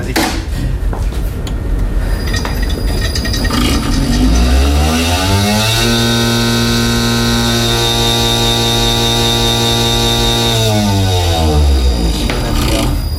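A lab shaker machine spins up with a rising whine, holds a loud steady motor hum for several seconds while rattling a lidded sample tube to break it up and release DNA, then winds back down.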